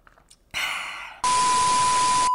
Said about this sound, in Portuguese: Tomar um golinho do meu café para não esfriar.